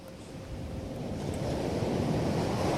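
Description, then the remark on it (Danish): Ocean waves breaking on a shore at eastern Skagen, Denmark, in the morning, in a steady, broad roar of surf that swells slightly louder, with a hint of wind noise and no voices. “Den her lyd tilbage, fordi i morges, da jeg stod op i det østlige Skagen, ja.”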